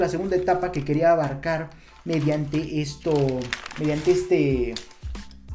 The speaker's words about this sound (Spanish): eh, perdón por el ruido, mediante eh, son las hojas de mis notas